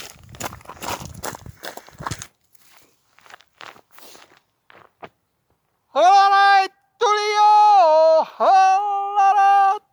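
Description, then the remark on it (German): Crunchy footsteps on a very narrow, steep, stony path descending from a forest road through low mixed forest on the Schöckeltal walk, quick and uneven for a couple of seconds, then thinning to scattered scuffs before a loud, sustained, yodel-like Styrian call greeting a friend on the opposite slope takes over. “Ich verlasse nun die Forststraße und laufe einen ganz schmalen Pfad sehr steil hinunter durch einen niedrigen Mischwald.”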